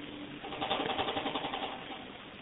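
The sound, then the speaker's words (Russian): A refrigerator hums with a steady, buzzy drone and a faint rattling pulse, holding an even moderate level for a couple of seconds with no voices. “Холодильник, по-моему, выразил всем свое недоумение из-за тихо.”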